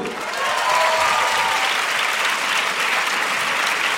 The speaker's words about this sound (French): Mais ouais, vous pouvez les applaudir.